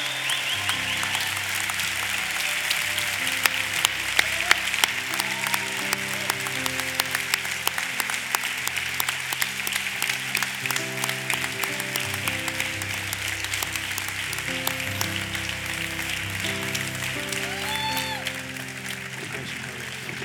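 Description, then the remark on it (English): A church audience applauds people who have come forward to give their lives to Christ, steadily for about twenty seconds: a dense wash of clapping with a few louder sharp claps, while sustained organ or keyboard chords play underneath. “Let's give these people a big hand right here.”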